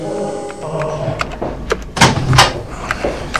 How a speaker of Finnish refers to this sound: Tuosta noin. Se on tämä ovi.